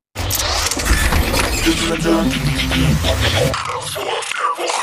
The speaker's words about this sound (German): Da, wollen wir das mal äh, abschießen? wollen wir, wollen wir da, da, da, Wort der Woche Intro abschießen?